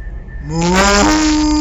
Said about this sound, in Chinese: 那天晚上，牛肉香气还没有散去，村里全村人都听见大黄牛的吼叫声。平日牛叫是哞哞的动静，那天晚上大黄牛的叫声却是